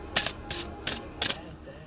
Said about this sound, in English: So I'm going to pull the first card. Let me. I'm gonna shuffle this two more times.